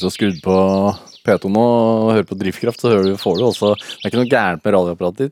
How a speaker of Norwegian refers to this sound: Den som er i forgrunnen der, det er en bokfinkhann.